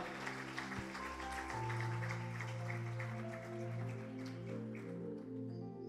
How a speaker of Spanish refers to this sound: ¿Cuánto lo creen en esta casa? Démosle un aplauso, Señor, y vamos a entrar en el tema.